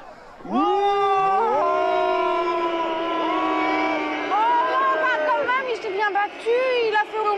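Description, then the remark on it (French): A crowd of many voices boos loudly in a long, sustained drone, with the overlapping calls wavering in pitch and breaking into scattered rising jeers toward the end. “j'envoie les huées ou vous voulez le forcer au combat”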